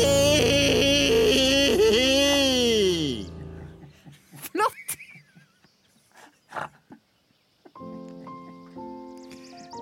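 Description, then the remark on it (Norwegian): A child, as Ronja, lets out her loud, drawn-out spring cry (vårrop), a yell with a wavering, rising-and-falling pitch for about three seconds, followed by scattered quieter sounds and a few soft tonal notes near the end. “Kan ikke du ta det der vårropet ditt, Ronja?”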